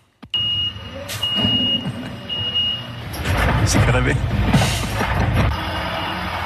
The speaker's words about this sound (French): Ah oui, ça les fait rêver, mais ça les réveille aussi. Les camions poubelles, indispensables, ça, oui, mais tellement bruyants.